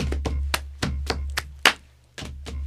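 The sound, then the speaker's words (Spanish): A quick rhythmic run of body percussion in the pattern snap, clap, leg, clap, leg: sharp finger snaps, hand claps and duller leg slaps in a steady pattern, about eight hits over a low constant hum, with no talking. “Chasquido, aplauso. Pierna, aplauso, pierna.”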